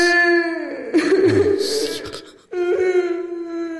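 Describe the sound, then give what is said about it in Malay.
A person's voice mimics a crying baby with two drawn-out, wavering wails separated by a brief gasp, loud. “Tapi anak dia tak nangis macam gini lah.”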